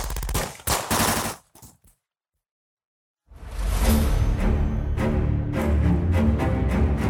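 gunshots

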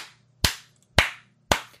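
hand clapping

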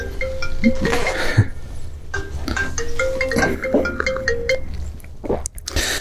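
mobile phone ringing

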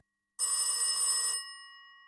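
telephone bell ringing

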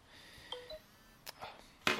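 phone text message notification

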